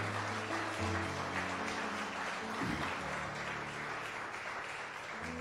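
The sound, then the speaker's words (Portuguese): A crowd of people claps continuously in dense, sustained applause given to the Lord at the close of a Christian sermon, with steady low musical tones sounding underneath throughout. “Dá salva de palmas ao Senhor.”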